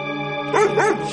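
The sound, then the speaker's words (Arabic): A dog lets out two quick barks in a row, each rising and falling in pitch like a yelp, over a steady background hum; the dog has hold of a man and will not let go. “ده ايه الكلب ده انت خونك ايه ده الكلب ماسك فيك ومش عاوز يسيبك”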